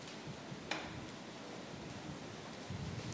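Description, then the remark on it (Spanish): Steady rain hisses softly and evenly, with a few sharper drip-like taps popping out now and then; no voices are heard. “El Señor nos ha bendecido con una buena lluvia y yo espero que no salga el sol tan fuerte, porque las calores están difíciles.”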